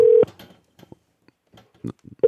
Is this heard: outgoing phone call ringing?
yes